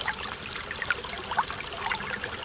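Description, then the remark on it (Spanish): River water flows steadily in a continuous, fairly quiet rush, with small bubbling splashes and gurgles popping up along the way. No voices are present. “Cuando el río suena,”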